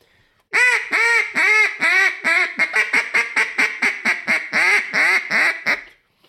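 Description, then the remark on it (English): A fine hen quack sequence blown on a duck call to imitate ducks: about fifteen nasal quacks, a few long ones first, then quicker and shorter notes, loud with no talking. “I'll throw that fine hen out, and then I'll come back with maybe a coarse hen, and then I'll come to a boss hen.”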